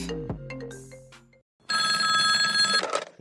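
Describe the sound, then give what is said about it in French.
A short descending electronic tone, a brief pause, then a loud, bright telephone bell rings continuously for over a second, clear with no talking, as a call comes in to a board-game customer service line. “Allô Allô Allô Allô Allô SAV des jeux de société, j'écoute.”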